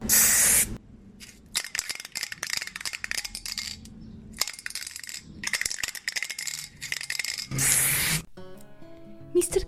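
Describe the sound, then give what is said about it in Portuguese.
A spray paint can hisses in two loud bursts, one at the start and one near the end, as a street artist works with paint and spray in the city of Porto. Rattling and clattering come between the bursts, then a short musical tone at the end. “Tomás é um artista que embeleza a cidade do Porto através de técnicas de tinta e spray”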